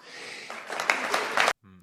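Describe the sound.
A burst of applause, a dense crackle of many hands that swells louder over about a second and a half, then stops abruptly as a man's voice briefly begins.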